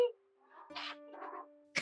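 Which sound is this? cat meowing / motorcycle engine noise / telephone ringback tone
cat meowing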